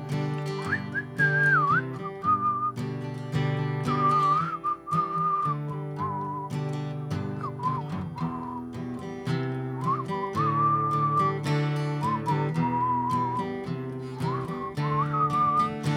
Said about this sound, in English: This is where the whistling helps if you can help. I'll try.